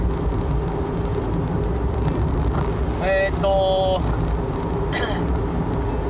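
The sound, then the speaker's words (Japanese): Steady, dense road rumble fills the inside of a moving family car throughout, low and constant, with a person briefly murmuring a hesitant filler partway through. “今お家の車で撮ってますなんで録音が録音のやり方が変わってるんで多分雑音ひどかったりすると思うんですけど、まあ、いつも雑音すごいんで気にしないでください”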